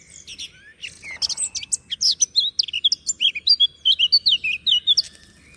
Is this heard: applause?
no